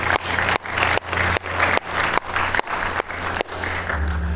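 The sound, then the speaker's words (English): A large church audience applauds to congratulate those who prayed the prayer of salvation, a steady, dense wash of clapping that holds fairly loud and even for several seconds, with no voices rising above it. “Church family, would you congratulate those that have prayed that prayer today?”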